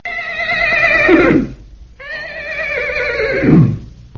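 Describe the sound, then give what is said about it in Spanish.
A horse neighs twice in quick succession, each call a loud, quavering whinny that drops off into a lower snort at the end, with no talking. “Un caballo, por ejemplo,”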